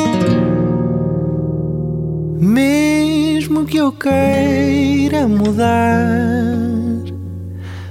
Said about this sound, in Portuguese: E passamos agora para um dos singles deste novo álbum que há de sair,